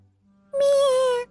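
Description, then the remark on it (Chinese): A voice imitates a little goat's bleat in a told story: one sustained nasal "meh" with a strong steady pitch that dips slightly as it fades, preceded by a faint low hum. “它走啊走，没走多远，小狐狸又遇到了一只没有带伞的小山羊。”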